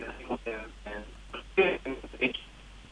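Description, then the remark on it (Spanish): A person speaks over a thin, band-limited mobile phone line; the voice sounds muffled and fairly quiet, with choppy bursts that make the caller hard to make out. “te pido por favor que orientes un poquito mejor el celular, …. Que tenemos alguna dificultad allí para, para escucharte”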